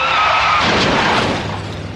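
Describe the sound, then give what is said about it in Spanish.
A loud, sudden crash of metal and shattering glass from a car crash test with crash-test dummies bursts out at once, harsh, then rumbles and rattles as debris settles over the next two seconds. No voices are heard. “Los domis de choque revelan el daño que puedes sufrir al chocar en un auto.”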